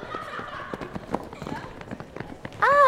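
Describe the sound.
A group of children comes running in, a quick patter of many footsteps with busy voices mixed in, before a loud, high voice abruptly cuts in at the end.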